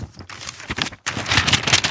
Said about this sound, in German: So, hört man schon, Heft, ne? Es ist, ein, es ist ein reines Heft, ja. Ja, von Galeria Kaufhof.